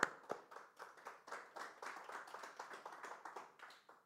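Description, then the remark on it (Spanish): An audience applauds with steady, dense clapping that pulses in a loose rhythm for several seconds, moderately loud with a slightly louder opening burst, and no voices over it, giving a strong round of applause for the Lord. “Damos un fuerte, un fuerte aplauso para nuestro Señor.”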